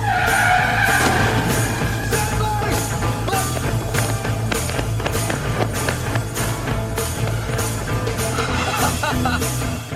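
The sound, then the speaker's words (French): In a film scene, a car's tires skid with a loud, screeching squeal near the start as the car hits the character Renton just before the Calton Street Bridge in Edinburgh, set against a dense, continuous rumble with steady rhythmic thumps running through the whole clip. “Ranton finit par se bouffer une voiture juste avant le Calton Street Bridge d'Édimbourg, ville d'ailleurs dans laquelle se passe le film, même si beaucoup de scènes ont été shootées à Glasgow.”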